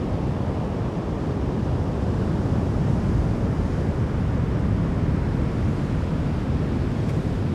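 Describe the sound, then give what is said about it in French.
Heavy Atlantic Ocean waves, 2-3 metres high, crash and roll onto a golden sandy beach near Bayonne in fog on 8 October 2018, with a light offshore wind. A steady, loud roar of surf with a low rumble and no voices, the wash continuous throughout. “ça roule, ça roule très très fort des vagues euh, en 2-3 mètres de haut.”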